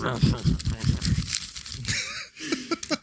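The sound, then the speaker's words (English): Loud crinkling of a piece of paper being crinkled up in front of the microphone crackles continuously for a few seconds, with a person's voice and laughter sounding underneath, especially at the start. “And I'm also crinkling up a piece of paper in front of the microphone.”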